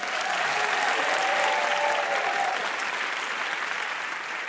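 An audience applauds steadily, a dense wash of many hands clapping at an even, fairly loud level throughout, with faint cheering tones mixed in early and the clapping tapering slightly at the end.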